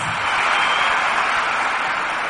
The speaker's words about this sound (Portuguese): Palmas de novo.